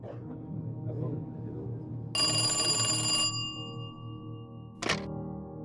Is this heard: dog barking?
no